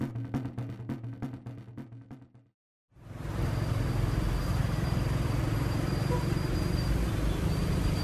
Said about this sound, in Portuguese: É que aqui está uma barulheira. Estou no meio da rua, mas espera aí que eu vou entrar no lugar mais silencioso.